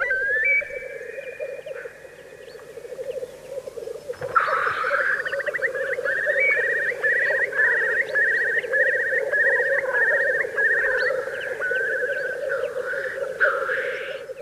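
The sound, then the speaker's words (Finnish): A Eurasian curlew's loud spring call on a cool spring morning: rising whistles that speed into a long, bubbling trill, over a steady low hum of many black grouse cooing and bubbling at their lek in the background. “Teerien kiihkeän soidintunnelman läpi tunkeutuu äkkiä kuovin keväthuuto.”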